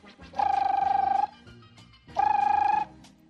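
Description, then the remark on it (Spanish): A telephone rings twice, each burst a steady trilling electronic tone lasting under a second, separated by a short pause. The ringing is clear, with no talking over it. “Y que suena el teléfono.”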